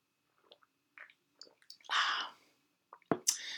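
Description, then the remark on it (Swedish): Mouth sounds: a few soft wet clicks, then a brief airy slurp as someone sips julmust, a Swedish Christmas soda, followed by a quiet gulp and lip smack. No talking. “Jag har framför mig här lite, lite julmust och eh, en liten godisbit här så att eh, så vi ska ha lite, lite mums-mums till också.”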